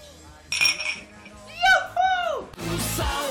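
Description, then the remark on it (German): A bright clink of glasses touching in a toast in a studio, followed by several voices cheerfully calling out "Prost!" and a burst of noisy commotion. “Bei uns im Studio heißt es jetzt ortshaft ist. Prost! Prost!”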